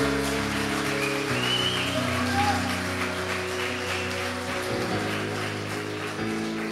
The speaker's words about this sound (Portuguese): Você vai aplaudir, aplaude verdade.